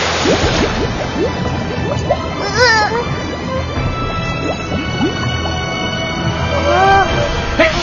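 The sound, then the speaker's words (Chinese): Superheated liquid erupts in a microwave with a sudden loud burst, followed by wet splattering and dripping, while startled voices cry out over the mess. “可是，皮皮侠，它为什么会突然爆炸呢？ 这是突沸现象。”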